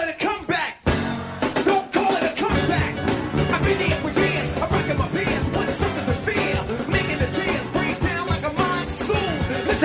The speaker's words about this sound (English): MTV Unplugged featured hip hop acts for the first time ever with this performance.